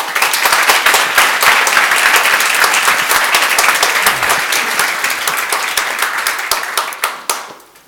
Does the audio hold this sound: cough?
no